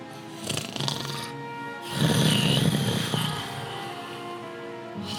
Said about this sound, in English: Like a machine? No, that sounds like snoring. Yeah, I was gonna say it sounds more like snoring to me.